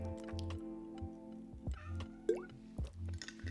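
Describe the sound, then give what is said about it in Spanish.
A female domestic cat arrives and is about to leap onto a person. She gives one brief, rising chirp-like meow over a steady low mechanical hum, with a few soft dripping, liquid clicks around it and no one speaking. “Vamos a tomar agüita que llegó mi gata ahí, se va a lanzar encima mío.”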